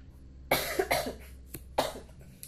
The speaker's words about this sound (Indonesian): bukan corona anjir batuk biasa